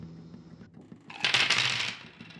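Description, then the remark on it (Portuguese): Dice rattle and clatter across a hard tabletop in a quick burst lasting about a second, moderately loud, with a faint low background hum and no talking; the dice are rolled for a character's armor in a tabletop role-playing game, to see whether he can defend. “Vou jogar aqui um, uma armadura para ele, para ver se ele consegue defender.”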